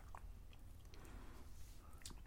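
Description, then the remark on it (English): Moist chewing of dried licorice root, with soft biting and squishing sounds repeating irregularly over a low background rumble, no talking. “And probably in the Netherlands is maybe the only country where we chew on this as a candy. And if you start chewing on it,”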